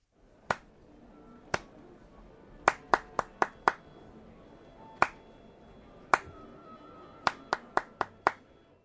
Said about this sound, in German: Ja, war schon ein bisschen komplizierter. Wer diesen Rhythmus klatschen kann, der muss nur noch diese Nummer hier wählen.